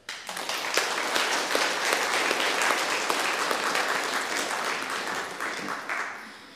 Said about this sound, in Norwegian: Og jeg synes Som en liten hilsen herfra dere, så syns jeg vi skal gi henne en liten klapp.